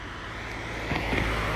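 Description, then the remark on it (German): A car passes by, a steady low rumble and tire hiss that swells slightly toward the end, with no voices. “Autos hören sich auch so wunderschön an.”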